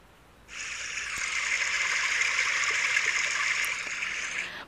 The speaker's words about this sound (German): Da kann man das so einstellen. Und man kann da auch einstellen, zum Beispiel hier Fluss.